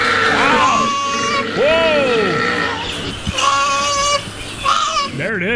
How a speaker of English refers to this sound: Wow. What you just heard on our uh, show was 30 seconds of koala mating.